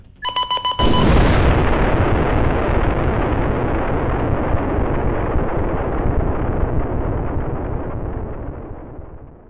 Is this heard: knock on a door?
no